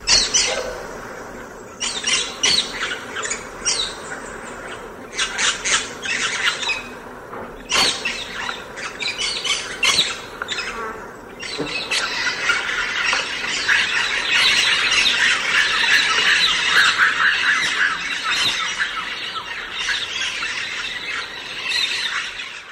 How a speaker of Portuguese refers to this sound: O canto do periquito.